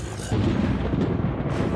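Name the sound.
thunder rumbling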